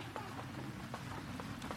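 Rain drums steadily on a roof, a continuous hiss punctuated by scattered sharper drop impacts, heard fairly faintly from indoors with no voices.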